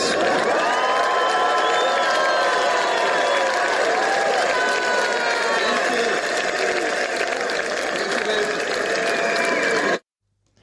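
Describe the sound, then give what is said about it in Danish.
A large crowd at Roskilde Festival in 2009 applauds and cheers loudly and steadily for Dr. Muhammad Yunus, a dense wash of clapping with whoops and shouted voices rising above it, continuing unbroken for about ten seconds before cutting off abruptly. “Ja, det her det var jo virkelig en, øh, en hyldest, som Mohamed Yunus han fik på, på Roskilde Festival i 2009”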